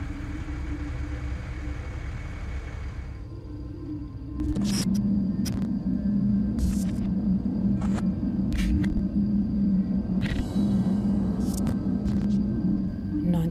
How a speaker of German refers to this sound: werden die mysteriösen Klänge beschrieben als ein Geräusch ähnlich einem in der Ferne mit Standgas laufenden LKW-Dieselmotors oder eines defekten Kühlschranks, aber auch einem leisen Murmeln bis hin zu einem schwachen Grollen oder hohen Quietschen.